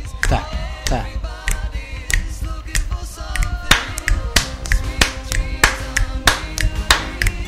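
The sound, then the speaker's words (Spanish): Crisp finger snaps made with one hand repeat in a slow, steady rhythm, roughly two per second, loud, with a faint tonal hum underneath. “¿puedo chasquear los dedos así. No, puedo hacerlo con, solo con una mano, perdón.”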